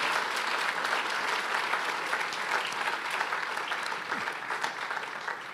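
An audience applauds the Lord steadily, a dense, even wash of many hands clapping at a constant loudness that thins slightly near the end, with no voices speaking over it.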